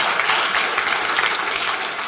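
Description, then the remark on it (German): An audience claps steadily, a dense, even wash of many hands with no pauses or peaks and no voices over it. “Das, das darf uns nicht einfach, ja, klatschen wir doch mal für das.”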